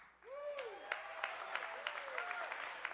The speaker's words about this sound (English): Parents are cheering for that one.